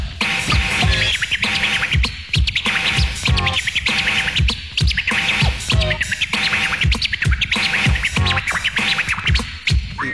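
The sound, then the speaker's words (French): Rapid turntable scratches warble and squeal over a steady beat, the pitch-bent cuts mimicking chirping birds in quick, repeated bursts, loud with no voices. “Make it sound like bird. Et t'entends les bruits d'oiseaux.”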